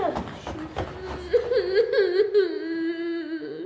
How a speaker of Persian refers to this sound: بر چی داری گریه میکنی من که هنوز چیزی نگفتم